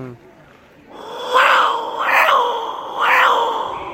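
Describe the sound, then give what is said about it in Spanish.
A handmade, painted jaguar craft used as a noisemaker imitates a jaguar's roar with three loud, rasping, growl-like bursts, rising and falling in a rough, uneven rhythm over a low hiss. “se supone que es el ruido del jaguar.”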